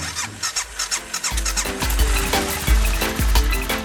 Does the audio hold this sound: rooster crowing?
no